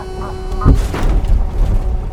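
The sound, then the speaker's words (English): A goose gives a couple of short, nasal honks over a low, rumbling background, followed by a heavy thump and continuing muffled noise. “and La Lazoin, which is French for these weird ass geese that walk around like they run the place. Oh, look, there's one now.”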